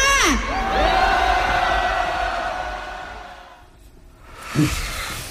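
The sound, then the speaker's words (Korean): A large rally crowd roars and cheers on the speaker's cue for a shout: high whoops and shouted voices swell together into a sustained, loud wall of sound that dips briefly before surging again with fresh yells. “여러분, 저 하늘까지 그리고 온 국토가 들썩이게 여러분의 함성 소리 듣도록 하겠습니다. 함성 시작!”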